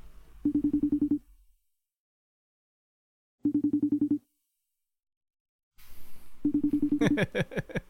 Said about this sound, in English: So let's get Debo a call real quick, man. I hope he answered the phone.